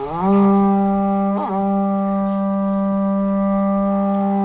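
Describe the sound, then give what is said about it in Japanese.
A conch shell trumpet (horagai) gives one long, loud, buzzy blast at Hasedera temple that swells up into its low pitch, wavers briefly partway through, then holds a steady horn-like tone to the end. No one speaks. “えー、ほほらがりが、えー、皆さん聞こえてきたと思います。”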